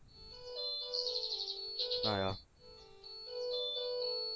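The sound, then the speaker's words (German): A telephone's electronic ringtone plays a bright, repeating melodic pattern of high tones, fairly loud and sustained throughout, with a brief spoken word from a voice cutting in midway. “oh, das Telefon. Ja, das haben wir doch öfters das Problem.”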